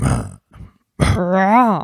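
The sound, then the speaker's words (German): A person's voice attempts a lion's roar: two short rough, breathy bursts, then a louder sustained voiced growl that swells and bends in pitch before cutting off. “Wie macht ein Löwe? Ich kann sowas nicht.”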